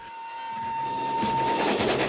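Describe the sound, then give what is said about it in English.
In a film trailer, an armed train carrying gold rumbles along the rails with a rhythmic clatter that swells louder, while a thin steady squeal rides over it before fading. No voices are heard. “an armed train carrying $250 million in gold.”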